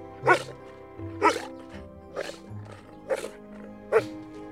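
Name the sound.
dogs barking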